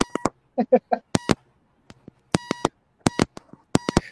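Short electronic beeps and clicks come in quick irregular clusters, resembling Morse code tapping, fairly loud, with brief gaps of silence between the bursts.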